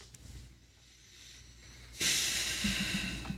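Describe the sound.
After a brief near-silence, a breathy exhale rushes out and trails off slowly, a person audibly sighing.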